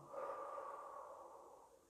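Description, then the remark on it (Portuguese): A single long, deep breath drawn in, airy and steady, swelling quickly and then slowly fading over about two seconds with no talking. “Inspira fundo”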